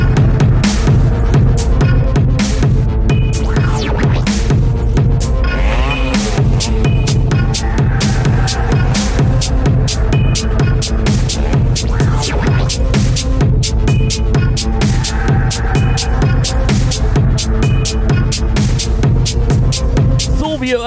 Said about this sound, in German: gibt es jetzt wieder so ein bisschen Techno.